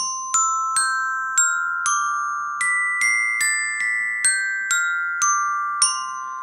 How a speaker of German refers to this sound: Ja, das ist tatsächlich ein Kinderglockenspiel. Das habe ich auch bei eBay ersteigert. Das hat nicht viel gekostet, aber es ist ein schöner Effekt.